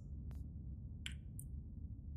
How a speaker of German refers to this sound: Ich glaube, glaub, das war mein Magen.